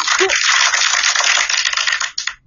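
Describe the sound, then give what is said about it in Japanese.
A burst of applause sound effect: dense, crackling clapping that holds steady for about two seconds, then thins out and fades, with no voices over it. “やはりですね、なんかこのパチパチパチパチパチっていう拍手が出てくるとすごく嬉しいですね。”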